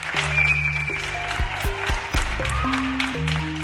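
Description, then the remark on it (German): Many people in Kreis 6, Zürich, Switzerland, clap steadily from windows and balconies for the country's heroines and heroes, a dense crackle of applause with a few sharper claps standing out, while changing musical tones ring out over it. “also hat es die Woche in Zürich tönt, im Kreis 6, wo die Leute von den Fenstern und Balken oben runtergeklatscht haben.”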